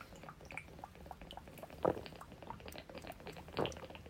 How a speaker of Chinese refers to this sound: 说着说着我要来喝一大口水。常常在我的节目录音的过程，大家会听到我咕噜咕噜喝水。来吧，请你跟我一起喝水吧，来，嗯。